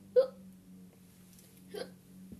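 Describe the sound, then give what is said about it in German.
Two short, stifled sneezes about a second and a half apart, the first sharper and louder, with a faint steady hum underneath and no talking. “Man muss hier nicht gerade niesen.”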